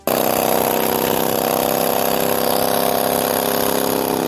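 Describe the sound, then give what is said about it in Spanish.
A motorcycle engine runs steadily at a fairly loud, constant idle, its buzzing drone holding even throughout with no voices present. “La motocicleta, la motocicleta está de cumpleaños.”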